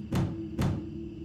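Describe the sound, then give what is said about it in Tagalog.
Two heavy, rattling thuds from an office door being jolted as if someone inside is trying to force it open without success, about half a second apart, over a steady low hum. “May kumalampag sa pinto na parang pinipilit itong buksan ngunit hindi natuloy.”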